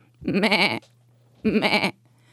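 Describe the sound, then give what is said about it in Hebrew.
A voice mimics a sheep's bleat twice, two wavering, vibrato-laden calls of about half a second each separated by a short pause, loud, with a faint low hum underneath. “והולכים כמו כבשים,”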